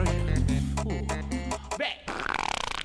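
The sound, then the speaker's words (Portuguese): A loud, drawn-out fart with a low, buzzy rumble that holds for a couple of seconds, then breaks into a wetter, sputtering flutter before stopping. “Nossa, ainda mandou um peidão fedido no final, velho.”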